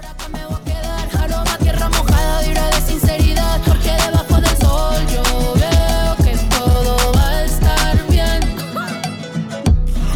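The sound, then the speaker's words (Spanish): A loud, full song from a film soundtrack plays throughout, driven by a steady thumping bass beat with layered melodic lines on top, briefly thinning out near the end before continuing. “No sé si podemos escuchar un poquito más de esa canción”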